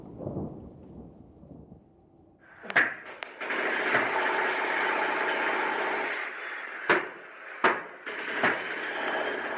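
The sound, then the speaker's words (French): Construction site machinery at the entrance of the Pleyel station construction site in Saint-Denis, a future station meant for the Olympic Games: a low rumble gives way to a loud, steady mechanical roar, broken by four sharp metallic bangs toward the end. No one speaks. “Nous sommes devant l'entrée du chantier de la gare Pleyel à Saint-Denis.”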